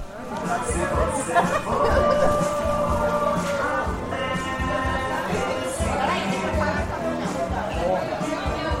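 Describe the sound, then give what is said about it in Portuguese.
Busy bar ambience at the Bar da Saudade, known as Bar do Pica-Pau, beside the Marumipim river behind the Porto Grande market, where people dance passadão style: a steady wash of overlapping crowd chatter and indistinct voices, fairly loud, with background clatter and some tonal sounds woven through. “que agora experimentamos segurar um bom estilo passadão no bar da saudade.”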